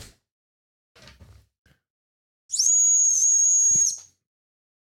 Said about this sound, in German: ich könnte mal hier mal kurz zur Pfeife greifen